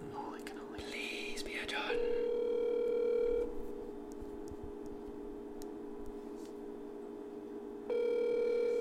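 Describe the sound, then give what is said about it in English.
A phone line rings out with two long, steady ringback tones separated by a pause of silence while waiting for someone to answer, preceded by brief faint murmuring. “We also might hit the snag of just people not answering their phones.”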